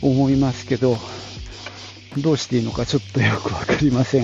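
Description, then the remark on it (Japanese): A man talks into a headset-style earphone mic with noise cancelling while a dense, hissy buzz of cicadas rides along under his voice, swelling when he speaks and dropping away in his pauses as the noise cancelling removes it. “だから、俺の声と一緒にセミの声が乗っかってくるという、ちょっとね、聞きづらい感じになってるかなと”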